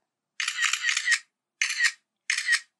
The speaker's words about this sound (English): now when you hear your phone making that shutter clicking noise, you'll think about how weird it is that they had to record the sound of a mirror flipping up to tell you that your picture took.